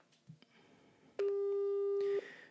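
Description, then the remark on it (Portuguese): A single steady electronic phone beep, the ringing tone of an outgoing WhatsApp call, holds for about a second over faint room noise, then cuts off. “Mas vou-lhe ligar para ver se ele está aqui. Vocês já devem estar aqui a ouvir o, o pip.”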